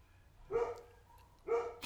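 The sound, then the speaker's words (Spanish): Two loud barks from a Labrador, about a second apart, each a short harmonic burst, with quiet background between them and no one talking. “Ah, si escuchan un perro ladrando, es un nuevo efecto de sonido que metimos en el podcast, eh, producto de, bueno, para, que sea como más vívido y capaz que es un labrador que está por acá afuera”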